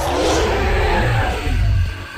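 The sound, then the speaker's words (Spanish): A loud, rumbling dinosaur roar sound effect, one long continuous bellow with a deep, growling low end and a harsh rasp, lasting about two seconds with no talking. “Un dinosaurio, por ejemplo.”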